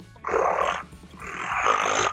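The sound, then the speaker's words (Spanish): A voice imitates a revving car engine with two loud, raspy, roaring bursts, each about three-quarters of a second long, separated by a short pause and rumbling low underneath. “Y acá viene mi, secuencia de imitación de ruidos de motores, ¿te parece?”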